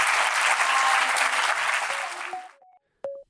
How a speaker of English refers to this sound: Please, can you put your hands together in thanks of our wonderful speakers,